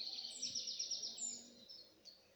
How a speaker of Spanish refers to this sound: De fondo, acompañado por el canto de los pájaros.